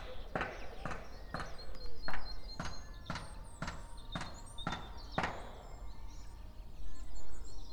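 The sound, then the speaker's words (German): Someone doing handiwork in a garden, heard as about eight sharp, evenly spaced knocks like hammer blows in a steady rhythm, then a quieter stretch of open-air background ambience. “Ja, irgendwo im Hintergrund handwerkt jemand im Garten.”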